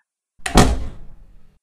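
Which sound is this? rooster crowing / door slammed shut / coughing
door slammed shut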